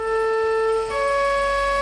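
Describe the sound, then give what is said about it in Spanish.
A loud ambulance siren sounds its two-tone wail, holding one pitch and then dropping to a lower tone partway through, with no voices over it. “Sedán, aunque tuvo versión camioneta muy usada en Francia como ambulancia, y coupé convertible.”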